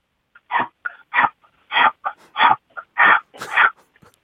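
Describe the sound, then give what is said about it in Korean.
A chameleon sound played from a phone's Bixby voice assistant: raspy, hissing calls repeat in a steady rhythm of about six breathy bursts with fainter clicks between, through a small phone speaker. “그럼 카멜레온 소리 한번 들어볼게요.”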